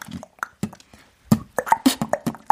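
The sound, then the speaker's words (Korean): A mouth-made beatbox tick-tock (ttokttak) beat: sharp clicks and tongue pops alternating with low thumps, starting sparse then speeding into a denser, steady pattern, fairly loud with no speech. “배운 적이 있는데 그때 똑딱 비트를 마스터했습니다.”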